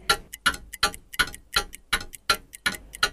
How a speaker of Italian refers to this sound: Ed ora le toccava di saltare continuamente da un punto all'altro per non essere travolta da tutti quei meccanismi che scattavano facendo tic-tac.